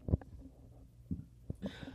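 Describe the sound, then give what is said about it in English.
A low, guttural burp comes in several short bursts, with a gravelly rumble rising and falling over a couple of seconds and brief quiet gaps between the pulses. “excuse me, I'm sorry, I had to burp.”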